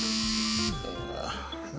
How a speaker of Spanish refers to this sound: perdón las alarmas.